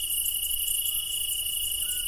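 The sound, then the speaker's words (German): A dense chorus of crickets chirps steadily in the Tuscan countryside of Italy, among maquis and cypresses: a continuous shrill trilling with no voices, just the bright insect drone of a warm outdoor evening. “Die Macchia, die Zypressen, das Zirpen der Grillen.”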